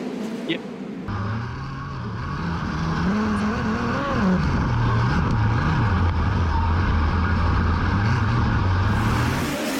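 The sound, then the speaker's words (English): Race car engines roar in a loud, continuous drone during a D feature race, their pitch rising and falling as cars accelerate around the track, starting abruptly after a brief quieter moment. “A lot of big names, a lot of good cars and good equipment, though, in this D feature.”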